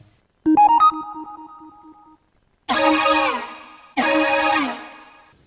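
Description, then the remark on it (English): Synthesizer effects played on a Phantom keyboard for a song's verse: a bright plucked synth note with a quick fluttering attack and echoing repeats, then two loud, buzzy sustained synth chords played one after another, with no voices. “I found some interesting sounds on my Phantom keyboard and I added those right here.”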